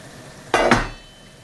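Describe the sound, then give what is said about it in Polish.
Chopped button mushrooms, cut into pieces about the size of a thumbnail, tumble into a pot of browning meat in two quick bursts of rustling clatter, followed by a faint lingering sizzle. No one speaks. “Jeśli nie, to zasypuję nimi”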